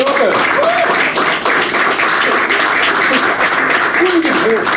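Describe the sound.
Steady, dense audience applause of many hands clapping at once, loud and continuous throughout, with a few whoops and cheering voices rising above the clapping.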